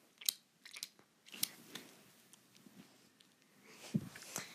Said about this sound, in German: Hör auf, dein deinem Kaugummi so laut zu kauen.